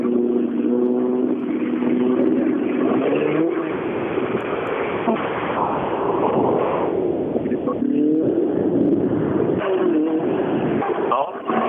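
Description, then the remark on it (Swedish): A rally car engine roars steadily, its buzzing drone rising and falling in pitch as it revs through gear changes, with a constant rough wash of noise underneath. “olika bilar är olika förberedda för rallykörning. Det, det hörs tydligt också.”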